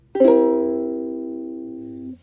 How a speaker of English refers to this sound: Um, it's a little different. It makes you like pause and be like, oh, that's a cool, that's a cool sound. So here's a C7 chord.